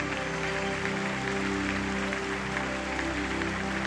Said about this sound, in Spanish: No, no, no, no, aplauda, aplauda, celebra, celebra, dale un aplauso glorioso.